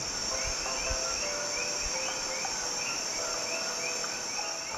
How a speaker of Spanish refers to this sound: Respiro profundamente, con las manos en las rodillas, y escucho los sonidos del viejo San Juan.